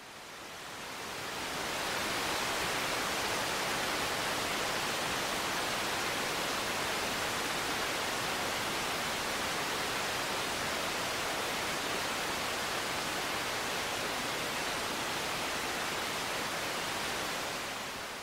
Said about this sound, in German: das ist im Prinzip weißes Rauschen, aber hat weniger hohe Frequenzen dann drin in diesem Frequenzsalat